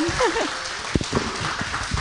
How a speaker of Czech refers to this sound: to, je, největší potlesk, co jsme kdy měli. Ano. Možná ještě nahráváme. Stand, Ježíši, standing ovation, to jste nemuseli.